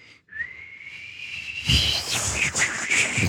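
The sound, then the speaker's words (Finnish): Someone tries to whistle into a microphone windscreen: a thin, wavering whistle holds a single high pitch for about a second and a half, then breaks down into breathy, airy hissing with only faint traces of tone left. “Mä en ole tiennyt, että sä oot noin huono vihellä.”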